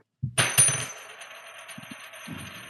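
A coin is flipped and clatters onto a table, a quick burst of metallic ringing with a few rattling bounces that fade into a long shimmering spin, fairly loud.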